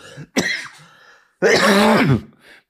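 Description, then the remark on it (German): Two loud bursts of coughing and throat clearing, a short sharp one followed by a longer rasping fit with a voiced, strained edge, then quiet. “nimm doch mal ein Bonbon, das ist ja schrecklich, ey. Ich denke, du raus Husten.”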